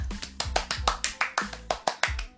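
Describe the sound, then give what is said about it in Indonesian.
A quick run of sharp hand claps for a member of the audience, about a dozen crisp slaps in an uneven, brisk rhythm, fairly loud with no talking. “tepuk tangan buat dia”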